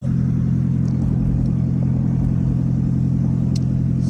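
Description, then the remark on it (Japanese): A loud Prius car engine roars with a harsh, throaty rumble after its catalytic converter was stolen, like a vehicle running without its exhaust properly muffled. The steady drone fills the whole recording with no talking. “素晴らしい車でしょところがこのコンバーターを盗むとですねこんな音になっちゃいます”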